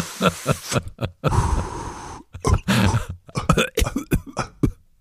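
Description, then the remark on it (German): A string of short, sharp coughs, broken up by a longer rasping, breathy stretch of throat noise, with no talking in between. “Nee, das, nee, nee, du hast gehustet, mein, also, ich habe Ringe gemacht.”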